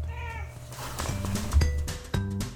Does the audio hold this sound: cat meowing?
yes